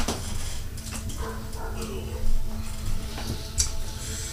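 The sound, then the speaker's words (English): A couple of dogs let out short, scattered barks over a steady low background hum and faint murmuring voices. “Dogs, hush.”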